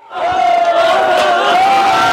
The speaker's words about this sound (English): They're fast and nimble, the crowd cheering every dribble, drive, and dunk. So, with the crowd primed, the atmosphere electric, the championship game went well into the night here.